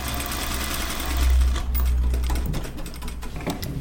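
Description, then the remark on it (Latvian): An overlock sewing machine in a sewing workshop runs steadily, sewing seams: a dense rapid mechanical whir with a low motor hum that rises briefly louder midway, continuous, with no talking. “Tie ir overloki, ir...”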